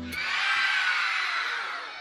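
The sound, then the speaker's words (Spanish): A loud, sustained burst of many voices screaming together, a dense high-pitched wall of shrieks lasting about two seconds before tapering slightly at the end. “Se oían gritos.”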